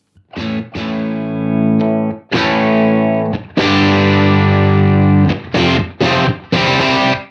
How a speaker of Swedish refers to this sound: rattar ett typ classic rock-ljud på ja. Tele då. Absolut.